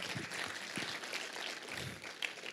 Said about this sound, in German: Lass uns mal Jesus einen Applaus geben für so wunderbare Gnaden und Gaben.